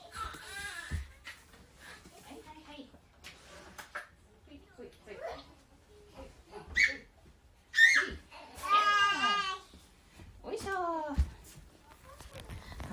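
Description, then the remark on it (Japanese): A young boy, the speaker's son, cries and fusses in several loud, wavering bursts, broken by short pauses, with quieter talking heard in the first half. “息子登場です。泣いてた。”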